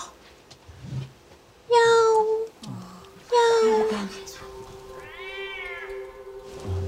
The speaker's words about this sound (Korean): 이번에 집 밖에서 웬 고양이가 울어대는 거예요. 근데 이 소리가 안 잦아들고 비명 소리처럼 더 크게 막 더 사악하게 막 음. 짖기 시작한 거예요, 고양이가.